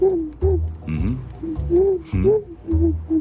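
A black owl hoots over and over in quick succession, a string of fairly loud tonal calls with rising and falling pitch and short pauses between them, no talking.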